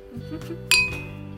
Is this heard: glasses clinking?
yes